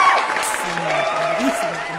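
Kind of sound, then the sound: crowd, audience applause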